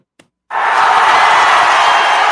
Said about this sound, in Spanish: Así es, un fuerte aplauso para este nuevo proyecto